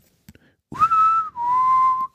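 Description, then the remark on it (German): A person whistles two sustained tones imitating a boatswain's pipe call, the signal for a captain coming on board: a higher held note that dips, then a slightly lower steady note, fairly loud, after two faint clicks. “dieses, diese äh, Pfeife, wenn der Captain an Bord kommt, als Soundsignal einfach bekommen.”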